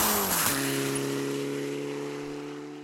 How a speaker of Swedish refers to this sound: Tillbaka ute på SS3 där vi haft ett litet uppehåll hos Ola Strömberg och det börjar nalkas bil igen.